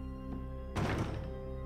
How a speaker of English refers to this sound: He gives the go ahead for the uniformed officers to break the door down.